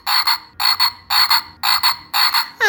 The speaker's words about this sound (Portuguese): Ah, isso é um sapo! É um anfíbio muito fofinho, mas ele não é tão perigoso